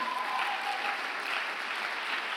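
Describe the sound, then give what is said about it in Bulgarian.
An audience applauds with steady, dense clapping that fills the whole stretch at an even, fairly loud level, with no voices rising above it. “О, ако ръкопляскаш, ръкопляскай, като че вярваш.”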